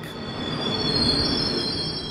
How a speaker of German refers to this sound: Natürlich in der Eisenbahn, im Speisewagen auf der Strecke von Dresden nach Prag.